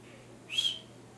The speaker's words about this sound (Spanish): Y cuando él no se movió, le silbé.